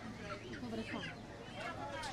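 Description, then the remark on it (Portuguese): Several live chickens cluck and squawk in short, overlapping calls at a market in the country's capital, where live chickens are plucked for customers, against a constant backdrop of murmuring voices and market bustle. “O trabalho da depenagem do frango vivo virou negócio em vários mercados da capital do país.”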